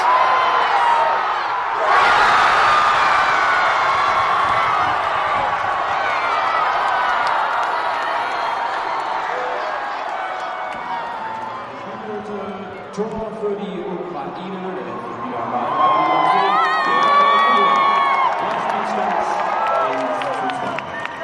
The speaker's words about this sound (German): Und der Jubel spricht für sich.